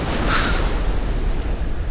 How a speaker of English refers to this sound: And then you hear sound of crashing waves.